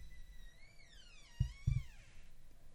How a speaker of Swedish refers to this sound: Det var en knarrig dörr, om det hördes.